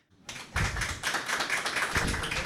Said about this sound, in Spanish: Y esta vez eh, tenemos un invitado súper especial. Eh, está con nosotros Sandro Marcone. Sandro Marcone, les pido un aplauso por favor para él.